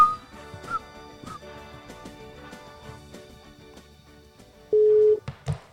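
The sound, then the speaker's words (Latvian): A phone line's ringback tone sounds once near the end as a loud, steady electronic beep lasting about half a second, following several seconds of faint, cluttered background noise with soft ticks. “O, sauc, tas jau ir daudz. Pirms tam nesauc.”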